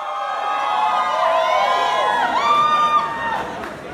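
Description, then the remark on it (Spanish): A large audience at a campaign event erupts in loud, sustained cheering and shouting as the candidate on stage takes a selfie with his phone, many voices overlapping with rising whoops and yells filling the space for several seconds. “El público estalla.”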